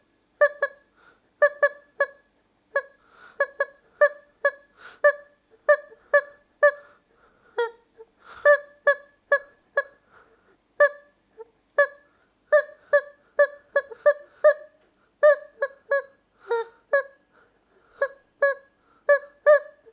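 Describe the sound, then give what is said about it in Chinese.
A squeaky rubber chicken toy squawks out a tune, its honking squeals rising and falling in pitch in quick rhythmic bursts with brief pauses between phrases, played alone with no talking. “那我今天呢，就想用我的老板尖叫鸡来演奏一首歌曲，希望大家猜得到是什么歌，也希望大家听完过后可以开心一点。”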